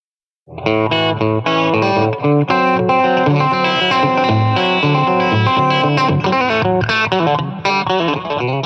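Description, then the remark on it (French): An electric guitar played through a Roland Tube Logic amplifier, loud and sustained, with overdriven, chorus-tinged chords shifting in a steady rhythm after a brief moment of silence. No one speaks. “Euh, euh, donc ils ont une technologie qui s'appelle le son Tube Logic.”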